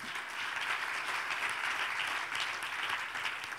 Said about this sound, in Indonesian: Dengan tepuk tangan bagi Tuhan kita Yesus.